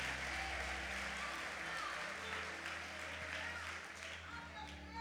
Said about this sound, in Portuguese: Oh, aplauda a palavra do Senhor. Aplauda a palavra do Senhor.